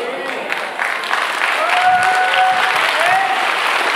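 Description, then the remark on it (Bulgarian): A church audience applauding God breaks into sustained applause, a dense, steady wash of many hands clapping that swells slightly and holds, with a few cheers or shouts rising above it. “Не знам дали имам трима-четирима човека в църквата, които могат да дадат около 10 секунди ръкопляскане на Бог.”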